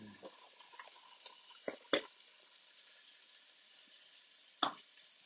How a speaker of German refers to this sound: So, jetzt lasse ich noch ganz bisschen anbraten.